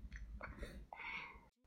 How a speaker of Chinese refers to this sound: 你还是在那里打喷嚏啊？